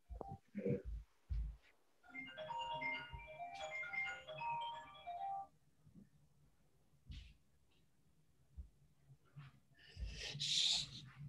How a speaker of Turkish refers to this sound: bir telefon çalan kapatayım bir dakika. Dur, şunu kapatayım sesi gelmesin.